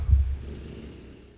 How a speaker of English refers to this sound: And we'll leave you today with … snoring. Ready? Hold on.